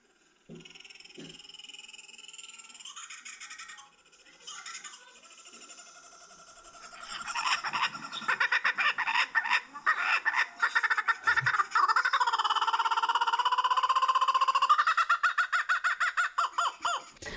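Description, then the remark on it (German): A kookaburra, also called the laughing Hans, gives its laughing call, building from scattered chuckles into a loud, raucous cackle of rapid rising-and-falling hoots, ending in a quick staccato series of notes. No one speaks over it. “Aber vielleicht kennt ihr den lachenden Hans auch unter dem Namen Kookaburra. Und wir spielen es mal hier kurz ab.”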